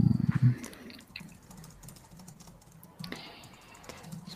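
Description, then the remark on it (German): Keys clatter on a computer keyboard as a wrong key combination is accidentally pressed, a quick burst of loud presses at the start, then softer scattered taps and clicks continue faintly, with no talking. “Ich muss habe gerade aus Versehen äh, technische Probleme verursacht durch die falsche Tastenkombination.”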